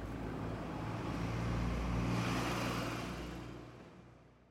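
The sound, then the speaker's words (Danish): Cars drive slowly along the road in front of Geo's house, engine rumble and tyre noise swelling as they near and fading away as they move off, with no voices. “Han står lidt og kigger efter postbilen mens han lytter til de langsomme biler.”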